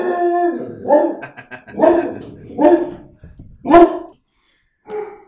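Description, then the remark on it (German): A dog barks in a quick run of five or six loud, whining yelps, with a short pause before a final softer bark, while nibbling at a person's foot. No one speaks. “also, bevor dein Hund hier hm die ist der Meinung war, er muss an meinem Fuß knabbern.”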